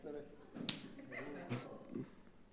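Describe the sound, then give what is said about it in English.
Two sharp, fairly loud hand slaps crack out about a second apart during a hand-slapping game, amid voices and excited vocal noises in the background. “And and, and if, if he pulls away without yeah. you slapping, you get a free hit.”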